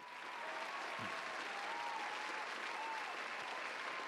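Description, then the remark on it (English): A steady burst of applause, dense overlapping claps that sound like a recorded crowd clapping, holding at an even level for a few seconds with no talking over it. “So first things first, shout out to Pat Mahomes, and um, I should give him a hand clap for that because it was well deserved.”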